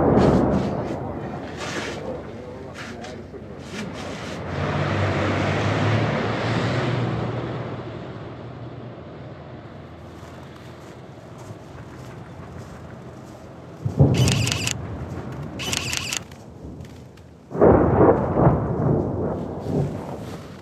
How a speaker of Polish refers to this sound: skrzypiący pod stopami śnieg, zmęczone silniki terenowych samochodów, głosy ludzi i przede wszystkim nieustający huk artylerii z obu stron. Tak brzmi dzisiaj Bachmut.